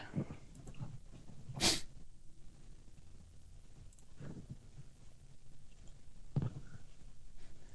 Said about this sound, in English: I'm fighting a sneeze, so hang on. like either sneeze or don't. It's, uh, it's like stuck.